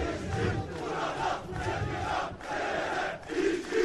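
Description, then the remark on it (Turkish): A crowd of thousands chants in unison at a rally, loud and sustained, with rhythmic swells and brief dips between repeated slogan phrases, the massed voices echoing. “Mitinge binlerce kişi katıldı.”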